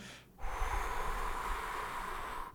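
Steady rush of breath blown through a breathing-trainer tube holding a small ball that rises as air is blown, starting after a brief pause and continuing for a couple of seconds with a faint whistly tone. No one speaks.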